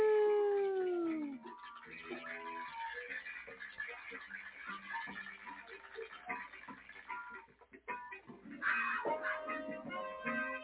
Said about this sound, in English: More mountain lions.